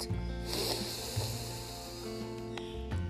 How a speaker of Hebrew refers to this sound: לפני שאנחנו מגדירים משהו, בואו ננשום שלוש נשימות עמוקות.